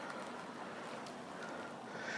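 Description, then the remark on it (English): A car drives past a pedestrian waiting at the roadside, with a steady, broad whooshing road noise that fills the whole stretch and swells slightly toward the end, with no voices. “Okay, just wait for this car to go past.”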